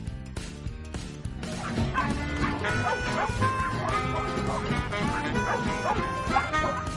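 Several dogs playing tag bark and yip excitedly in overlapping bursts, with a few whimpers mixed in. The loud, busy chorus continues without pause for the full seven seconds.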